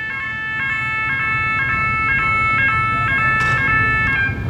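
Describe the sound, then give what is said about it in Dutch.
One of the world's largest container-unloading cranes, reaching 140 metres with its arm raised, sounds its warning signal as it starts moving: a steady series of bright, evenly spaced electronic tones, about two per second, over a constant low industrial rumble with no talking. “Als ze in beweging komen, laten ze een kenmerkend waarschuwingssignaal horen.”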